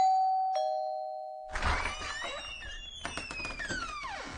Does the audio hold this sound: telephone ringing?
no